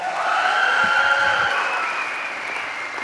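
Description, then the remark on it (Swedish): An audience claps steadily, a dense, sustained wash of applause holding at a loud, even level for about three seconds, easing slightly toward the end, with no one speaking. “Kan vi inte ge dem en bättre applåd?”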